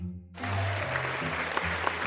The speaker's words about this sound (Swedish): Och publiken vet exakt när den ska börja kollektivt applådera.